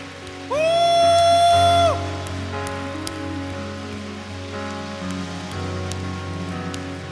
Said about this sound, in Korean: 이번 한 주를 살게 하실 주님께 이왕 드리는 박수 우리가 할 수 있는 최고의 박수를 하나님께 영광 올려드립시다.